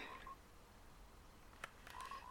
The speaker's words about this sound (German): Was ist das? Seit wann gibt's Frösche? Und was bringen die, wenn man die tötet?